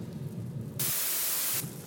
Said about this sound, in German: Und jetzt, wo es so doll regnet, will die bestimmt nicht mehr raus.